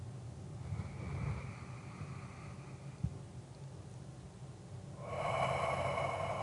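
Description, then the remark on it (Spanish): Slow, deliberate, conscious breathing: a long, soft, airy breath, then a louder and brighter rush of air near the end, with no talking. “Dándole permiso al cuerpo descansar, hacerle cómodo y luego empezar a respirar, respirando conscientemente.”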